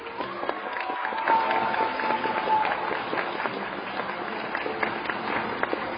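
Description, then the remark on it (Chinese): An audience at an Aidomei gathering in Taipei applauds steadily for several seconds to welcome a Leaders Club member to speak, a dense wash of many hands clapping at an even, sustained loudness, with a faint high tone briefly drifting through early on. “让我们用最热烈的掌声欢迎领袖俱乐部成员”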